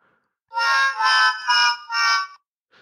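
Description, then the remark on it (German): Four loud, tonal dog barks fire off in quick succession, a short electronic-sounding burst from a sound button, with no talking over it, followed by silence. “Das Hundegebell, das ist ganz gut, muss ich sagen.”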